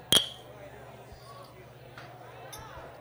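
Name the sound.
glasses clinking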